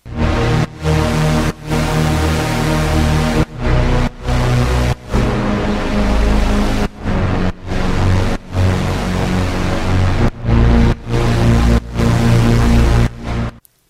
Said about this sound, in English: It's the smooth square wave. And I got three oscillators going and then I put a compressor on it. I've side chained it to the kick.